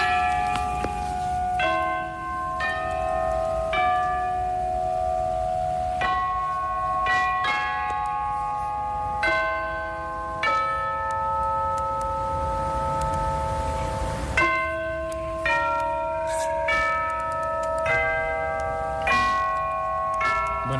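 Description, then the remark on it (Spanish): A peal of church bells rings out in a melodic sequence as a bell concert, overlapping strikes with long ringing tones, loud and continuous with no voices. “escuchar un poquito este concierto de campanas del maestro Aguilar y de Concastriz”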